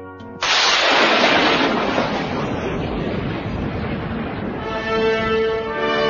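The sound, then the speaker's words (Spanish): A sudden loud crack of thunder bursts in, then rolls into a long, heavy rumble that slowly tapers off, with sustained musical tones faintly underneath throughout. “retumba el trueno aterrador y llueve espantosamente,”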